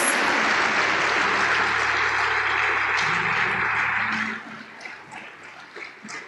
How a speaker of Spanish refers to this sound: ¿Cuántos podemos dar un aplauso a Dios por eso? Amén. Gracias a Dios.